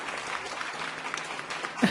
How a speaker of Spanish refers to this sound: ahí tenés que poner aplausos. Aplausos, es verdad, hay que poner aplausos, ahora los ponemos.